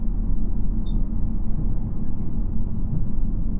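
Steady, heavy low-frequency rumble of a JR Shikoku 2700 series diesel railcar on the Nanpu No. 20 service from Kotohira to Okayama, heard from inside the carriage as it nears Kojima. The rumble is continuous and fairly loud, with a faint brief high tone near the start.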